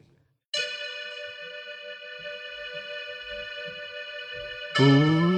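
A steady, sustained synth pad chord, played as accompaniment on a keyboard app on a phone, swells in and holds evenly for about four seconds, rich with layered harmonics, before a singing voice enters over it at the end.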